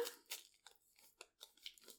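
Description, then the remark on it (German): Crinkly package being torn open at one corner: a quick series of dry rips and crackles in irregular bursts, with no voices. “Hört ihr es knistern? Okay, jetzt habe ich es oben geöffnet.”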